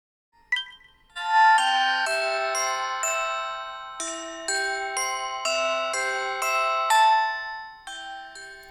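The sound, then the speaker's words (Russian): Relaxation music of bright, tinkling bell tones ringing out in a steady melodic sequence like a music box, each note chiming with a sustained shimmer, fairly loud, with no voices. “Конечно, если тихо, возможно, это как-то тебя успокоит, но в целом херачащие по ушам колокольчики — это такая себе история.”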